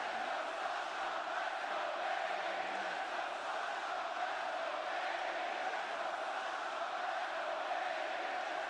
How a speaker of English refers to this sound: All the dueling chants are going now. I mean, listen to the pacing of the crowd, where they've been. They've been at this is awesome.